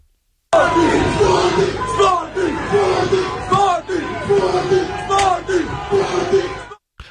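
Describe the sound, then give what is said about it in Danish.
Football players and fans shout and chant together in celebration in Lisbon, the players calling out to the fans and the fans answering, rising yells overlapping in a dense, continuous roar for several seconds before cutting off abruptly. “Og jeg tror faktisk her, det var nogle af spillerne, der stod og fejrede og hmm? råbte mm. ud til fansen, og der så svarede igen.”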